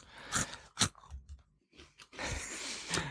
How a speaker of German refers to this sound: Ähm, ich knusper trotzdem nochmal meinen Tuck de Beukler weiter.